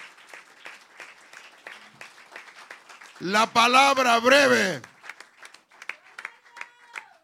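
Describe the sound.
An audience claps loudly for the Christ of glory in a steady, dense burst of applause, swelling with a loud voiced shout or cheer in the middle, then tapering off as a speaker talks over the scattered clapping.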